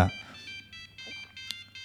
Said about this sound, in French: c'est le téléphone de Monsieur Touvenin qui sonne.